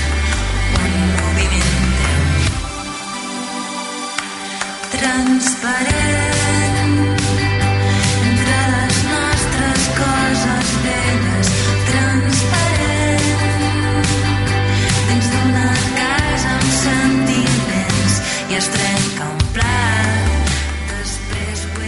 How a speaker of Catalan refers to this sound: ahir van treure una cançó nova del avançament del pròxim disc que sona així.